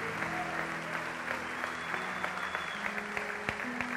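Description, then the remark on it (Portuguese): A crowd applauds the Lord during a sermon, a dense wash of clapping hands that holds at an even, moderate level, with a few sharper individual claps and a soft sustained tone underneath. “Ah, por favor, dê um aplauso ao Senhor.”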